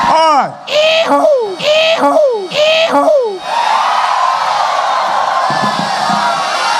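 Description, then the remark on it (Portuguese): A little shrieking sound effect, played repeatedly by a TV program's sound technician, repeats four times in quick, even succession, each a sharp squeal sliding downward, then gives way to a loud wash of crowd noise. “Nessa hora aí, ele mandou o gritinho dele um monte de vezes.”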